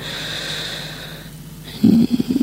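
A drawn-out, exaggerated yawn, voiced and sustained, ending in a louder burst of breathy, snort-like exhalations.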